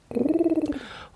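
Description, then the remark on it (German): A pigeon in a forest gives one low, throaty coo lasting under a second, with a quick rolling flutter. It sounds clear, with no talking around it. “Und ähm, was ist das denn? Das ist eine Taube.”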